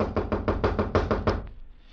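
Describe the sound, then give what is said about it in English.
A rapid series of about ten firm knocks on the wooden door of a little shop on Clark's Wharf, evenly spaced, stopping after a second and a half into quiet room tone. “it was a while before he could rouse anyone. Then it was the boy William who opened the door”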